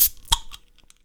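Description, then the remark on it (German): A bottle of hemp beer being opened for a tasting: a sharp hissing pop, then a couple of quicker clicks and rattles that fade into faint ticks within about a second. No one speaks. “So, lange Rede, kommen wir jetzt endlich mal zur Verkostung. Machen wir mal auf.”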